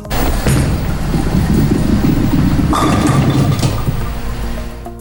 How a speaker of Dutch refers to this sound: En wat was dit? Boler? Bolen, zeg jij. Heel goed.